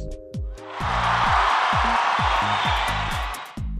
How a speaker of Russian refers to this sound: Женя, приготовь аплодисменты.